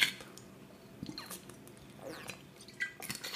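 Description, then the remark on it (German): Quiet sounds of someone drinking water: a few wet gulps and swallows with small clicks and sips, spread unevenly over a few seconds, with no one talking. “Ihr hört richtig. Ich trinke gerade Wasser”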